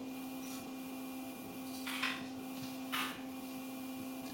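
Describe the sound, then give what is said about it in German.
Two short bursts of soft keyboard clatter, about a second apart, over a steady low electrical hum; a participant typing on an unmuted call, faint, with no one talking. “kannst du darauf achten, wenn du irgendwas tippst oder so, dich zu muten? Weil das hört man immer recht ja. laut.”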